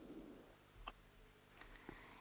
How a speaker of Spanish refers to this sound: y ahí escuchaba unos pájaros de fondo.